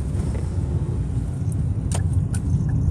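A car engine runs steadily with a deep, continuous low rumble, with a few faint clicks and metallic jingles near the end. No one speaks.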